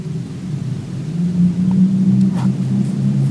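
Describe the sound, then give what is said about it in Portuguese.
An old Saveiro pickup truck drives past, its low, steady engine rumble swelling slightly louder through the middle and holding as it goes by, with no voices. “O carro aqui vai passar, vai embora. Olha, cara, ele é. O que, é um saveiro daquelas antigona.”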